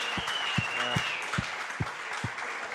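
A crowd applauds with steady, dense clapping that holds at an even level throughout, punctuated by a few regular low thumps.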